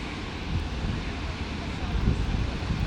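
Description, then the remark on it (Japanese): Ocean waves wash onto a beach on a humid day in a steady, continuous roar, recorded while walking along the seaside, heavily mixed with wind buffeting the microphone, with a slight swell in loudness near the end. “海の音波の音聞くとなんか波波打ちが走ってるみたいな感じですね”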